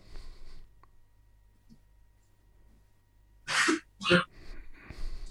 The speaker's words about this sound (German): Ja, Raus das damit. ist dieser besagte Husten.